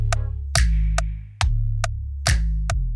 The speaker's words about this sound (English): Another one you mentioned is you have the announcer say metronome. Metronome. Man, I'm up to something. And then we get these ticking sounds.